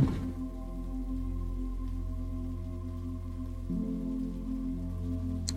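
Soft, steady rain falls without pause beneath a sustained, low musical drone. The hush stays even throughout, with no voices.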